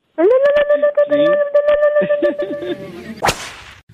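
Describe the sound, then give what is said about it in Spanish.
A steady, high-pitched tonal hum with overtones, mixed with voice-like sounds, holds for a few seconds before a single loud, sharp whip crack snaps out near the end. “¡Sas! Culebra al piso y. ¡Tras! ¡Tras! ¡Tras!”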